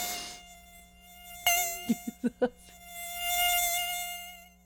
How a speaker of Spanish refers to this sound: A, ver, se va a acercar el mosco. El mosco se acerca. A ver, despierte, amigo. Se acerca el, el mosquito. El zancudito.